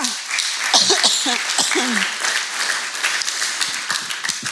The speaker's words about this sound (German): Und ich sage das nicht für mich, ich bin neu im Team, dieser Applaus, der gilt nicht mir.